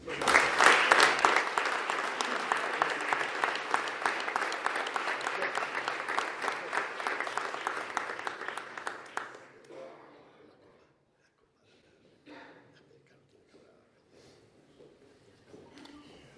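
Sustained applause from an audience at a business awards ceremony in northern Extremadura, Spain, clapping for the award winners, dense and steady for about nine seconds before fading out, followed by a quiet stretch with a few faint murmurs.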